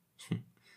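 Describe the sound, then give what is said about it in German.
A single short sneeze: a brief hissing intake that snaps into a muffled burst, followed by a faint breathy tail. It is fairly quiet, with no talking. “hat's, Gesundheit.”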